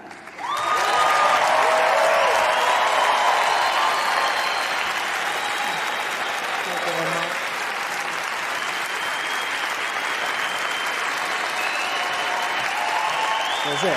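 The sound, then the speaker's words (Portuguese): Loud, sustained applause from a large audience greeting the performer Tatanka, a dense wash of clapping that swells quickly and continues steadily for the whole stretch, with faint voices and cheers mixed in. “Senhoras e senhores, peço uma, um grande aplauso para Tatanka!”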